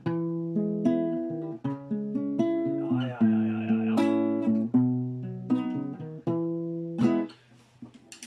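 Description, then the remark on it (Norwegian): A keyboard-like instrument plays a doo-wop chord progression as a looping sequence of sustained chords with a steady, moving rhythm, fairly loud, while a voice briefly murmurs agreement in the background. “Eh, jeg kan jo spille denne akkordprogresjonen, for så vidt.”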